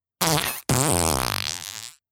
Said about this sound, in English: I just know that there are sound effects and the only one I can think of is like a fart sound. So I'm thinking about dropping that in at some point? Well, I can drop one in right here for you. Here we go.